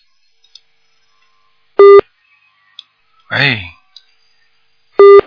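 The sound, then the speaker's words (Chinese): A telephone busy tone sounds on a radio call-in show's line after a listener's call would not hang up: two short, loud, steady mid-pitched beeps about three seconds apart, with a brief spoken exclamation between them and faint clicks. “麻烦了，他还挂不掉呢。”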